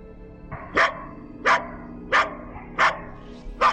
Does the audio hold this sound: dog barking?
yes